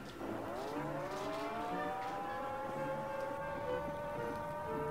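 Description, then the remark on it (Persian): A red-alert air-raid siren winds up from a low pitch into a loud, steady wail with layered harmonic tones, holding its high note for several seconds with no talking. “آجیل قرمز با آجیل قرمز یه خاطرهای عجیبی دارم فکر نمیکردم خیلی بشنومش صداش”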